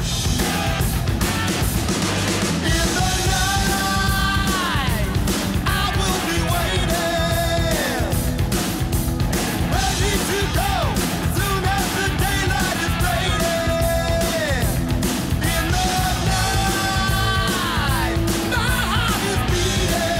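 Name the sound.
hard rock song playing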